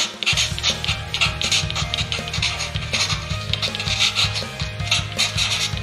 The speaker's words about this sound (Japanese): この鉛筆で書くっていう効果音